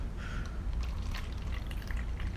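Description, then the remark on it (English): Alkaline water of pH 11.5 pours steadily over cherry tomatoes in a bowl, a continuous splashing and trickling with small droplet spatters, filling the whole moment without any voices. “So we're, we're pouring.”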